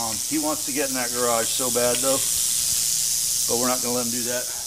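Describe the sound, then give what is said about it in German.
An angry red diamond rattlesnake, coiled up and trying to get into a garage as a man approaches, hisses steadily and loudly throughout, a harsh continuous rasp, while a voice speaks in short bursts over it. “Das ist unsere rote Diamantklapperschlange, eine der zwei häufigsten Arten hier. Sie ist ziemlich sauer, will unbedingt in diese Garage, aber daraus wird nichts.”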